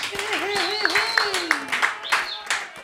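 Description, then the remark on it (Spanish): Hand claps land in an uneven, poorly coordinated rhythm, roughly a dozen sharp smacks over a few seconds, mixed with voices and a wavering tone underneath. “Che, te, te, hice palmas medio Stephen Hawking, pero no, no, coordiné mucho, pero bueno, igual.”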